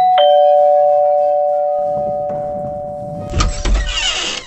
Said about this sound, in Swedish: Tysken ringde på Bellmans dörr.